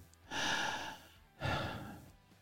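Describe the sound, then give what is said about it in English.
A voice imitates the heavy, rasping breathing heard inside a full pressure suit at high altitude in a U-2 or ER-2 aircraft: two long, loud breaths, an inhale followed by an exhale, noisy, with a brief quiet pause between them. “Now, in a U 2 and an ER 2 at those altitudes, you're in a full pressure suit. Yeah. So I can hear myself breathe.”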